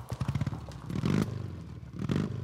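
A motorcycle rumbles along out on the road, its engine throbbing low and steady, then swelling twice into louder revving bursts. No voices are heard.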